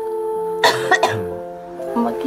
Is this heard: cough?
yes